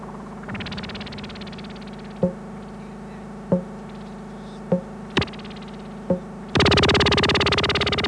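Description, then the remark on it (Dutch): Electronic audio reference signal for aiming a telescope: a steady low hum with sharp, evenly spaced pings, then a loud buzzing tone with harsh static suddenly cuts in and holds to the end. “Geef mij eens een audioreferentie voor het richten van de telescoop.”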